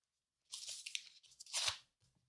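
A sheet of paper crinkles and rustles for about two seconds, in uneven crackling bursts with a louder crumple near the end, then goes quiet.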